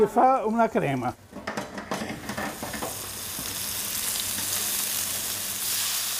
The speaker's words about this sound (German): Dann etwas Butter. Die Butter und das Öl machen die Soße beim Kochen schön cremig. Das rundet das Gericht ab. Wir legen das Fleisch in die Pfanne.